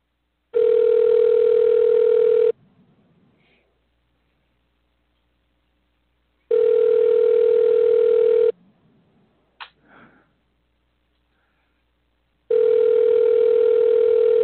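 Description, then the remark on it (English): A phone's ringback tone sounds three times, each steady two-second buzz separated by about four seconds of near silence, with a faint click or tap between rings. “It's ringing.”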